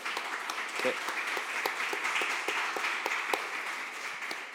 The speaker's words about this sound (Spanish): Eh, así que demos un fuerte aplauso a esos voluntarios, por favor.